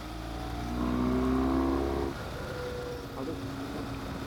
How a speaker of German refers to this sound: So, ich überhole jetzt schnell mal die beiden Autos da.